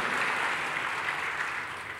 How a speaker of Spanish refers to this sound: Oh, dale un fuerte aplauso a nuestro Dios si lo crees. Si lo crees, apláudele fuerte a nuestro Dios.